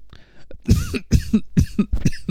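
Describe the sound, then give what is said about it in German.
A person coughs repeatedly in a rough, hacking fit of about five harsh, loud bursts, with short gasps between them and no talking. “oh Gott, der hustet. Der hustet.”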